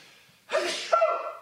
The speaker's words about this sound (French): Puis là, je vais éternuer